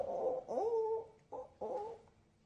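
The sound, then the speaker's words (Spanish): A person imitates a hen clucking to signal wanting an egg, giving a few voiced, nasal bursts with wavering pitch, the longest one drawn out, separated by short pauses. “Le hace señas que quiere un huevo imitando a una gallina.”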